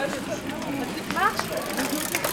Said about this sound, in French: C'est les voitures